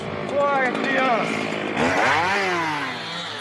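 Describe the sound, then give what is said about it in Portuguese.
A chainsaw roars as a 300-year-old tree is felled in Pacaás Novos National Park, Rondônia, Brazil, its engine pitch climbing and dipping as it revs, with a harsher, louder burst about halfway through. “Você vai ver agora a derrubada de uma árvore de 300 anos.”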